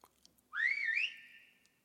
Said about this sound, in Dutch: Er wordt gebeld. Het zij zo. Ga jij? Ga jij maar. Wie kan dat nou zijn?